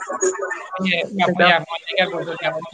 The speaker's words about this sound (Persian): میکروفون رو ببندید موقع صحبت باز کنید سپاسگزار میشم تو پژواک صدا دارید